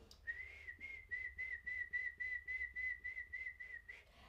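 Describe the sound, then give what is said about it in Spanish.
A single eerie, drawn-out whistle holds one steady pitch for several seconds, fairly quiet, over a faint rhythmic pulsing in the background, with no voices. “Maldito por tal acción vaga por los llanos cargando los huesos de su padre en un saco y lanzando tétricos silbidos”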